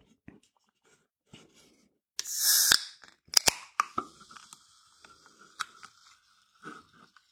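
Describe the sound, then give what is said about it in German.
A can of lemon-flavoured Ahoi Brause soft drink being opened: a few faint taps, then a loud hissing burst of escaping gas, sharp metallic clicks, and a quieter fizzing that lingers with occasional small pops. “Also wie ihr gehört habt, Dose.”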